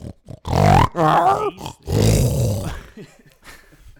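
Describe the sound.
Several people loudly imitate pig grunts and snorts, with a few overlapping bursts of throaty, nasal oinking that trail off into quieter snuffles.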